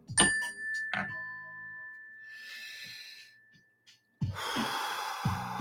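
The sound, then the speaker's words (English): A small mindfulness bell is struck, with a second softer tap just after, and its clear tone rings out and slowly fades over several seconds before a loud deep inhale and exhale. “I got to do my little mindfulness bell.”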